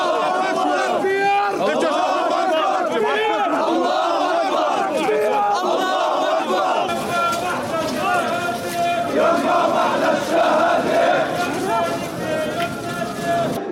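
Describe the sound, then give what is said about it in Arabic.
A large crowd of Palestinians chants together in loud, rhythmic unison in a funeral procession in Jenin, West Bank, carrying the bodies of those killed in an assassination to the Jenin camp and city cemeteries; many voices shout, with the chanting swelling louder partway through. “هنا في الضفة الغربية يشيع الفلسطينيون جثامين شهداء عملية الاغتيال الجبانة فجر هذا اليوم إلى مثواهم الأخير في مقبرة مخيم جنين ومقبرة المدينة”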